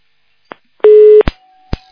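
A telephone busy tone after the phone company's line drops mid-call: a soft click, then one loud, steady buzzing beep, followed by more clicks and a faint, thin continuous tone. No one speaks.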